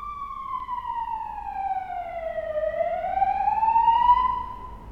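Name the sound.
ambulance siren passing outside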